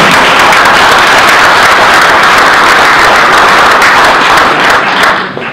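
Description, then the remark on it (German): Loud, sustained applause from an audience, a dense wash of many hands clapping steadily for several seconds before tapering off slightly at the end. “Bitte Applaus.”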